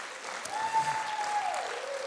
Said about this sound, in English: And can I just, let's just give our team a great round of applause.